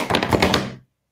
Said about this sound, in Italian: ecco mi si è anche, mi è caduto tutto qua, scusate, è caduto il telefono, lo rimettiamo qua. Eh, è il, è, il tamburo, è il lupo, e ha fatto cadere tutto qua.